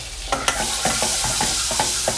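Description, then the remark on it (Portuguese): Garlic sautés in a pan with a steady, bright hiss over lowered heat, while a utensil stirs it in quick, repeated scraping strokes that tap and clatter every fraction of a second. “vamos refogar isso, dar uma baixada no fogo, porque senão queima.”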